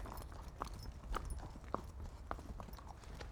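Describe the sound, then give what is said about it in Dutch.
A horse named Jo clip-clops at a steady walking pace, distinct knocking hoof steps repeating about every half second over a low rumbling background. “Jo is ook wel een heel mooi paard.”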